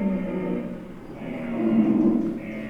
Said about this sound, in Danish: Og det, det brøler over det hele nu. Det er kæmpehjorten, og det er det uldhårede næsehorn.